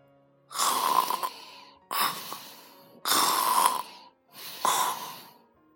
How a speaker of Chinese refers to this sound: 菲菲走进去，发现熊先生正在一张椅子上熟睡着。他的呼噜声要比爸爸午睡时发出的呼噜声高出十倍。